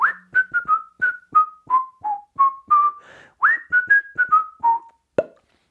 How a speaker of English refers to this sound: Can you whistle? If you can whistle without salivering, without spitting everywhere, perhaps that may help. Practice your whistling.